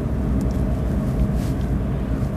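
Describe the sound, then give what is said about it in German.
Steady, low rumbling drone of engine and road noise from inside a moving car with one person driving alone, constant and fairly loud throughout, with no voices or distinct events breaking it. “Und heute, heute, heute sitze ich quasi spontan im Auto alleine und denke mir, okay, wenn du keinen anderen voll quatschen kannst, ja, dann quatsch euch voll.”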